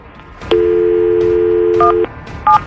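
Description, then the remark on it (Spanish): A steady telephone dial tone hums for about a second and a half, then a few short keypad beeps sound as a cell phone number is dialed to call a man's wife. The tones are clear, with no talking. “vamos a marcarle a la Leticia, que por cierto usted le está pagando el celular”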